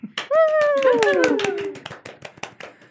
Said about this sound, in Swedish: då måste hon förstås få en applåd.